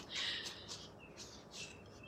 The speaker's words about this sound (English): patio door open because the bird sounds and the sounds of a beautiful, almost summer, but late spring day are just so beautiful, and everything is kind of picture perfect today.